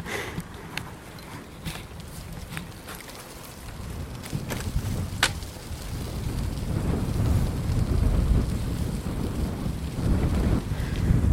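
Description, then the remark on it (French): Heavy wind buffets a microphone facing into the wind in the commune of Le Juc, a rumbling low roar that swells louder over the seconds, with scattered faint clicks and rustles on top and no voices. “Et donc je suis face au vent. Et alors c'est pas pareil.”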